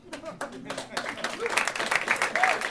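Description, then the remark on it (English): Dense, steady applause from an audience at a live movie trivia game, with scattered claps and crowd voices mixed in, building slightly louder toward the end and staying busy throughout. “a Martin Short level of applause for my opening gambit.”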